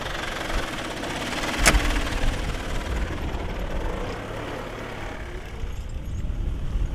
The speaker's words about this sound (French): Et je laisse Dimitri repartir sur son tracteur.